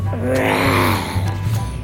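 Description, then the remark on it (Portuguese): A waking tiger's low, drawn-out groaning grunt, rising slightly, then fading into a rough snore-like breath, loud and alone over a steady low hum. “Falando em natureza, lá vem o tigre acordando de seu momento de sono.”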